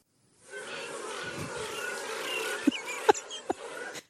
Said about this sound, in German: Es ist ein lauer Sommerabend. Die Grillen zirpen.